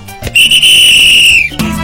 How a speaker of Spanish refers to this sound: Regresamos luego de una pausa y ¿qué creen? Hoy traigo silbato.